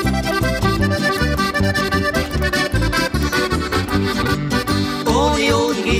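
A lively folk-pop band song plays loud and steady, with a driving bass, bright accordion-like chords and a sung melody line entering near the end.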